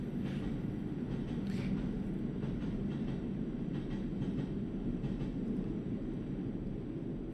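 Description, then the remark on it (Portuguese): Two CP trains pass one after the other on a rail line, a steady low roar with faint clattering that fills the whole stretch without letting up, moderately loud, with no one talking. “E temos mais dois, dois comboios de seguida.”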